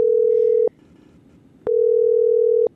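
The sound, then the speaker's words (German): Two long, steady ringback tones from a phone line as a call is placed to a listener, each lasting over half a second with a short pause between, clear with faint line hiss underneath and no talking. “So, und jetzt probieren wir, ob sie abnimmt.”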